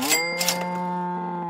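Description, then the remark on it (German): A short 'Reibach-Alarm' show jingle with a cow's moo: a sustained, steady low-pitched tone rich in harmonics, with brief bright bursts at the start, held for about a second and a half with no talking. “Kick den Jingle. Reibach-Alarm. Jetzt wird abgemolken.”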